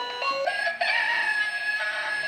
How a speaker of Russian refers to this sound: тут зато есть всякие петухи, я даже не поняла, кто это. Наверное, собака. Кошка.